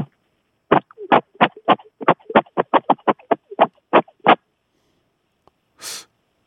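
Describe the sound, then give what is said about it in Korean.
A voice imitates an old 2G mobile phone's text-message-sent tone: a rapid, evenly paced run of about fourteen short, clipped vocal bursts, then, after a pause, a brief breathy puff. “그리고 옛날 투지폰에서 사용했었던 문자 메시지 전송하는 소리로 이렇게.”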